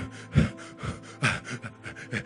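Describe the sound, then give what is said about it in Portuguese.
A voice imitates rapid panting, accelerated breathing: a quick run of about eight short, breathy huffs in an uneven rhythm, moderately loud, with no words spoken. “respiração acelerada, você tem medo em pequena escala, média escala, grande escala.”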